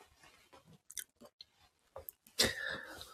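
Crunchy chewing of breakfast food during a morning live stream in Hokkaido, Japan: irregular bites and mouth sounds over a few seconds, ending in a louder, sustained crunching burst. No talking.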